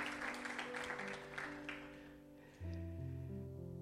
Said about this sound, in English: Can you give the Lord a hand clap? Yes. Can you give the Lord a strong hand clap?